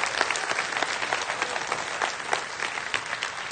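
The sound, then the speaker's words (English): A crowd applauds steadily, a dense patter of many hands clapping at once with a bright, even texture that holds at a fairly constant loudness throughout. “Now, we're clapping our hands”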